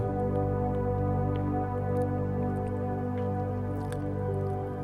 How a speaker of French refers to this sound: Visualisez comme une goutte, une goutte pure de paix, de tranquillité, de sérénité. Une goutte qui tomberait pile au centre de votre poitrine.